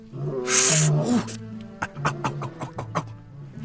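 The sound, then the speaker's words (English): A lion roars once, loud, a rough, harsh growl lasting about a second, followed by a string of short, rhythmic grunting bursts that fade off. “She scurried toward the sound as fast as she could, over roots and under vines, until she found the roaring lion thrashing around, holding his left front paw to his chest.”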